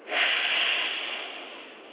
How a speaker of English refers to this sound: So I'm going to let you see my chest right here, okay? Inhale deeply.